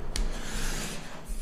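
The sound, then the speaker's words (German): Steady, harsh drilling noise from renovation work in the apartment downstairs, where the whole apartment is being gutted, a continuous grinding rasp that holds at an even level throughout, with no voices over it. “Bohren, aber die entkehren die ganze Wohnung da unten und ich könnte eigentlich gar nicht arbeiten, wenn ich da mal warten würde.”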